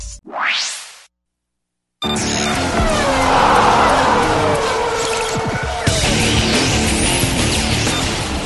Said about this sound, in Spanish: El rugir de los motores llega a juego limpio con la Fórmula 1 y más.